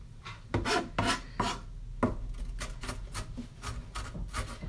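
A knife mincing about half an onion on a cutting board, a steady run of quick, crisp chops with a slightly rasping, scraping edge, about two per second, with no one talking.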